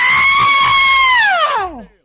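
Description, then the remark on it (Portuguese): A single loud, high-pitched human scream, sustained for over a second before sliding downward in pitch and cutting off, voiced as a deliberate imitation of a shriek. “Dei o grito mais gay da minha vida. Faz aí”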